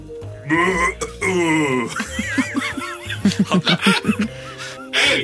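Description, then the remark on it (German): A person vocally imitates a burping cow, drawn-out lowing groans breaking into throaty belch-like bursts, loud, with laughter-like pulses mixed in between. “Ich mach eine rülpsende Kuh mache ich nach.”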